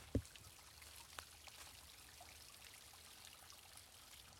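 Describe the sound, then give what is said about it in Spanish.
A faint, steady trickle of water runs continuously from a small water drop formed by the last few days' rain, not a true waterfall, with a soft bump near the start and another brief tick a second later. No one speaks. “Bien, pues esto es lo que queda de la cascada que yo había estado viendo, eh, que finalmente me, he dado cuenta que no es una cascada.”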